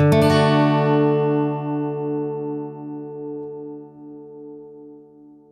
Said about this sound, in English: Your guitar string mainly produces that tone, but you get some overtones in the deal as well. playing a bunch of different tones together in a chord gives you even more overtones, all splashing into each other.